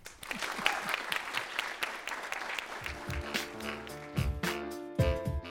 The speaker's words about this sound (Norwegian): Eh, gi en stor applaus